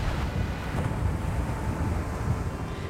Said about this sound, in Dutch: Er staat een gure, ijzige noordenwind.